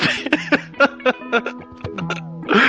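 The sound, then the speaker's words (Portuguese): A person makes a rapid series of buzzy, pitched fart sounds with the mouth into a microphone, several short blurts and a few drawn-out ones, unaccompanied by speech. “O cara tá peidando pela boca.”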